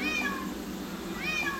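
Two drawn-out, plaintive cat meows, one at the start and one near the end, rising and falling in pitch over a steady low background din, with no talking; from cats, including pet cats, held at a large illegal cat-trading site on a hilltop, around 1 a.m. on 7 November 2022.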